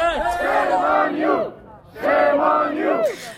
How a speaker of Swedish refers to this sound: Shame on you, skrek de åt dem.